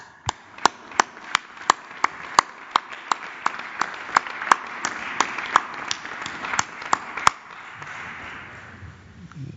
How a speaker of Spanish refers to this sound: yo sí quisiera darle un aplauso a estas setenta y, o cincuenta y tantas empresas eh, mexicanas y extranjeras también agrupadas en la AMIS, porque la verdad vale oro esto para los trabajadores y me permite yo darles un aplauso a, los empresarios.